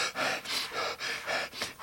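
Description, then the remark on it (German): A voice imitates the heavy, rapid panting of someone out of breath, about four or five quick breathy gasps in a steady rhythm, fairly loud, with no words spoken. “Man keucht und hat keine Luft.”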